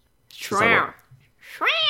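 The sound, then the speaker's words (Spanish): Two high, whiny kitten-like meows, fairly loud, with a short pause between them, apparently a human voice imitating a mewing kitten. “como un gatito.”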